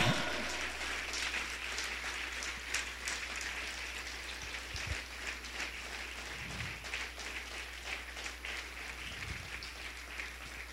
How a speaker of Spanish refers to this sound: Amén. Dale unas palmas al Señor. Dile, Señor, te alabo.